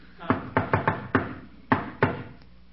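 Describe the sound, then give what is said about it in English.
Sidney Monahan's distinctive patterned knock on a door: a quick run of five raps, a short pause, then two firm closing knocks, crisp, with no one speaking. “Chester, that's Sidney Monahan's knock.”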